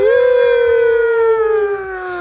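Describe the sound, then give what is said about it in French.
A person imitates a wolf howl with one long, loud note that rises briefly at the start and then slowly sinks. There is no other sound under it. “Mais tu fais comme un loup, non Le loup des Anango.”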